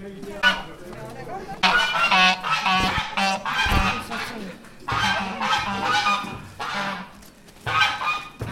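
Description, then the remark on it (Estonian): Geese honk loudly and repeatedly in overlapping bursts, a noisy flock calling with short pauses between the harsh, nasal cries, at the Kiek in de Kök tower on its opening day. “Kikendi kökitorni, kus avapäeval kõndisid treppe mööda kitsed, kus valju häält tegid haned ja kuked”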